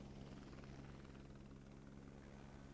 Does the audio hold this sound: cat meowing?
no